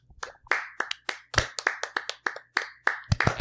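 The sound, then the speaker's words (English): People clapping for healthcare workers: a quick run of sharp, crisp claps, about a dozen or more in slightly uneven rhythm, fairly loud, with no talking over them. “And now let's clap for the healthcare workers.”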